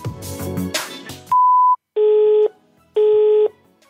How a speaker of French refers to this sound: personne que vous essayez de joindre n'est pas disponible, vous pourrez envoyer un message après le bip sonore.